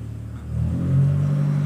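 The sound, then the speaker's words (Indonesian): A yellow car's engine revs up as the vehicle passes, its low rumble rising in pitch and loudness, then holding a steady drone with no talking over it. “Mobil siapa warna kuning mobilnya itu oh iya kacau lu man tidak dulu gitu anjing suaranya masuk sini mobil”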